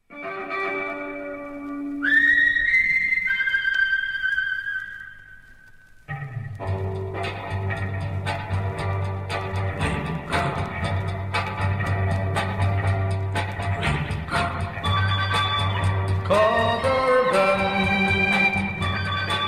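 A sixties-style orchestral instrumental from a 1968 45 rpm record plays loud and alone, opening with a lone whistled melody over soft chords before a full band with heavy bass, drums and bright melodic lines comes in.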